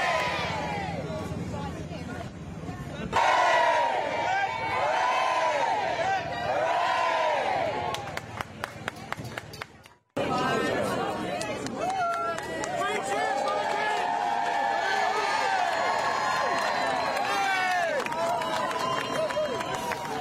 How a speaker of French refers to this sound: God Save the King entonné effectivement par la foule à Londres.